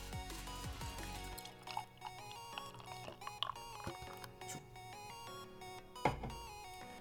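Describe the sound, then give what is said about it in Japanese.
Beer is poured gently from an emerald green can of Japan Ale into a glass, taking care not to raise the carbonation, a steady trickle with soft fizzing and a few clinks or bumps, and no one speaking. “はい、で継ぎ方もね、いろいろあるんですけど、まあ、とりあえずあまり今ね、炭酸を立てないで、ちょっと継いでいるので、今回も一応それで最初はいきたいと思います。”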